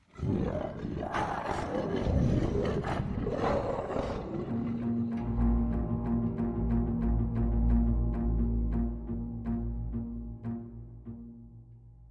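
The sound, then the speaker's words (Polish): A bear roars loudly, a harsh, rasping burst that settles into a deep, rumbling growl with a steady low drone, continuing for several seconds before fading. No one speaks. “Miałem otwarte złamanie i przez to otwarte złamanie wyczuł krew będący w pobliżu niedźwiedź.”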